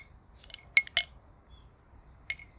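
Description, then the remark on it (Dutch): Someone handles a cup to take a sip of green latte: two sharp glassy clinks in quick succession, then a single fainter clink a moment later, over a quiet low hum. “Ik neem even een slokje van mijn green latte.”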